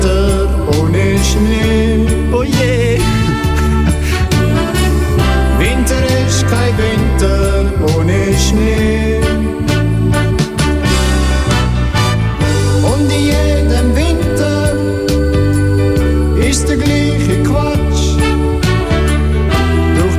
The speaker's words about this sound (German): Mit, mit so einer Schnulze,